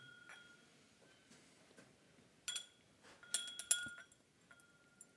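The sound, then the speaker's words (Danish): Glass clinks and taps as whisky is poured into a small glass, a few soft knocks early on, then a cluster of brighter ringing clinks with short tonal tails, with no talking. “Jeg tog et lille glas med.”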